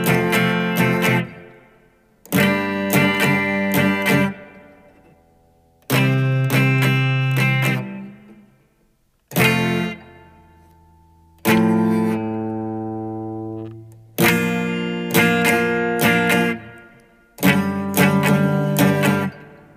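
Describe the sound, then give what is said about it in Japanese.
Guitar chords strummed one after another, about seven sharp bright attacks each left to ring briefly before the next chord change, with no voices; the chord progression of a song's opening chorus played without singing, using a new strumming pattern, with some buzzy noise mixed in. “ちょっとね、いきなりやっぱりね、こうストロークが変わると、雑音混じりになってしまってですね、ドキドキするんですが、”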